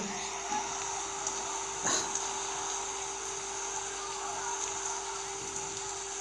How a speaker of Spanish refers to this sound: puta madre que se largó a llover, carajo. ¿Cómo se nubló?